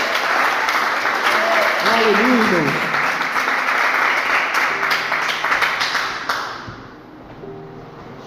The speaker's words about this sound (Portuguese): Você pode aplaudir a Jesus, mas aplauda com vontade. Amém? Glória a Deus.